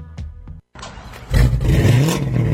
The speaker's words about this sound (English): Man, that car sounds good. Oh, you know, it's just that Carnage exhaust I got at Troy's Muffler.